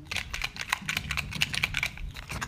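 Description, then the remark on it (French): A closed box of small paper slips being shaken for a prize draw, a quick run of dry rustling, rattling taps that keeps up steadily for a couple of seconds with no one speaking. “Donc je ferme la boîte là où j'ai mis les petits papiers. Et je secoue.”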